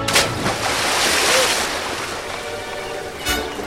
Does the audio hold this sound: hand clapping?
no